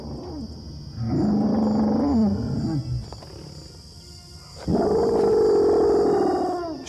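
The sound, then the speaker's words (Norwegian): Two long, loud roaring calls, each rising then falling in pitch with a deep, rumbling growl underneath, separated by a quieter pause; the low mating call of a male allosaurus, Big Al from a BBC documentary, after smelling a female's dung. “Dung left by a female allosaurus has an immediate effect on Al, and for the first time in his life, he issues a mating call. The female is not far and picks up the low sounds in his call.”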